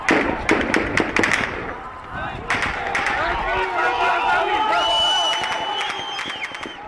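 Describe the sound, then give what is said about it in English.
Protesters in the city of Daraa shout and chant while security forces shoot, sharp gunshot-like cracks bursting out repeatedly in the first seconds, followed by loud, overlapping yelling and screaming voices that continue throughout. “I know this because of videos like the one you're hearing from that day,”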